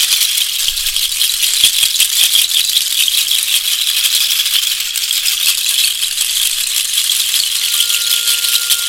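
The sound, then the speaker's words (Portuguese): Maracas shaken continuously and rapidly during an energy-cleansing exercise, making a dense, hissing rattle that stays steady and fairly loud throughout, with no voices. “Permita que o barulho das charcas possa quebrar os padrões aquelas chateações.”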